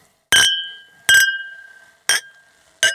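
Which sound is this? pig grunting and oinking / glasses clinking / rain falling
glasses clinking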